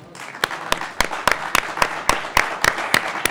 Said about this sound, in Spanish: Yo los aplaudo, sin duda. Es más, me ayudan y los aplaudimos.